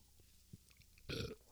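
A single muffled, low rumbling burp rises suddenly near the end, loud with a rough, furry texture, after a quiet stretch with a few faint small noises.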